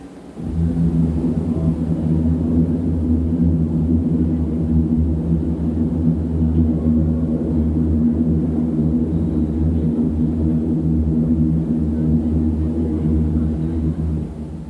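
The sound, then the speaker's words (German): A subway train rumbles over an elevated bridge, heard from beneath the bridge, a loud, steady low roar with a rattling undertone that holds for the whole stretch without letting up. No voices. “die U-Bahn, wenn sie über die Brücke rattert”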